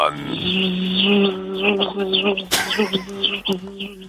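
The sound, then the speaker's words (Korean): A radio listener imitates a cicada's call with a steady, buzzing, voiced drone that wavers and pulses for about four seconds, fairly loud, with a brief sharp burst midway, as an entry in the summer sound quiz on Park Myung-soo's Radio Show. “자, 2번과 3번은 성대모사 단어를 찾아라 코너에서 청취자분이 성대모사 매미술이었습니다.”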